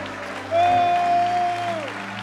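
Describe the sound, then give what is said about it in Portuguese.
An audience applauds and shouts to the Lord in worship with a steady wash of clapping, while a single high, sustained cheer or held note rises above it for about a second and a half. “Dê um brado ao Senhor e aplaudo neste lugar e adoro.”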